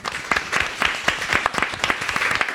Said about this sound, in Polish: Wielkie brawa.